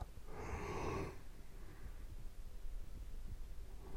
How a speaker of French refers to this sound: C'est infernal, c'est infernal. Je sais même pas pourquoi je fais ça si c'est pour bailler à chaque fois. Bref. Du coup, je suis un peu fatigué.